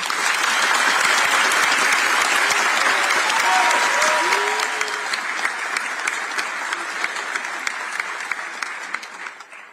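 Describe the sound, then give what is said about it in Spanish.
Sustained audience applause for Najid Armando Bukele Ortez, elected president of El Salvador, and Félix Ulloa Hijo, elected vice president, a dense wash of many hands clapping loudly at first, then thinning into scattered, sharper individual claps as it gradually fades toward the end. “felicitaciones al Partido Nuevas Ideas y a los distinguidos ciudadanos Najid Armando Bukele Ortez, electo presidente de la República, y Félix Ulloa Hijo, electo vicepresidente de la República, para quien pido un caluroso aplauso.”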